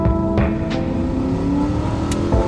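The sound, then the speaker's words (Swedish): A car engine roars at high revs on an icy day on the M1 motorway between London and Wetherby, a loud, steady droning hum with a few brief clicks and knocks over the top, no voices. “Han är inte på sitt bästa humör och bilen får känna på humörsvängningarna.”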